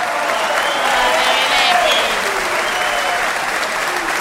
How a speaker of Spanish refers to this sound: Peor todavía será la ovación tributada a nuestro Gillespie.